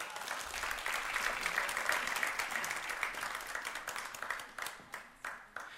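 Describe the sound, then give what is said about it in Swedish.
A crowd applauds with dense, steady clapping that holds strong for several seconds, then thins out into a few scattered claps near the end. “Vad jag nu ville säga med det här, ge dem en liten applåd.”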